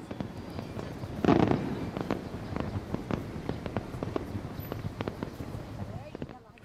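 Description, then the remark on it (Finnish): Fireworks crackle above the rooftops of Beirut, set off by someone celebrating entry into parliament, in a rapid, irregular string of sharp pops and bangs, with one louder, fuller burst early on before the crackling continues steadily and then fades out. “Beirutin kattojen yllä räiskyvät ilotulitteet.”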